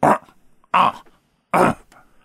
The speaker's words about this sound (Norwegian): Sånn at eh, ja, vi, vi, tipper rett og slett at eh, til tross for hva innsenderen sier, så vi tipper at dette har vært en, en, en elg eller en hjort, altså.